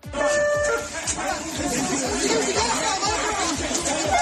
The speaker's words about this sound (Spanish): esto que escuchas es el sonido en una mezquita de Cisjordania, que además de la franja de Gaza es la otra zona en la que se divide el territorio palestino.